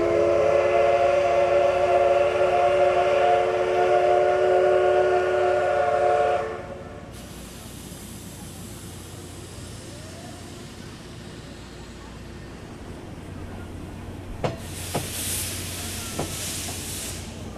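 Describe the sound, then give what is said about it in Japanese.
A steam locomotive SL train bound for Nagatoro, Saitama, pulls in to platform 5 around 10 o'clock: a loud, sustained whistle for several seconds, then a steady rumbling roar of the train, ending with sharp bursts of hissing steam. “SL 列車ご利用のお客様にご案内いたします SL 列車は5番線ホームに10時ちょうど頃入線いたします”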